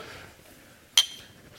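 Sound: glasses clinking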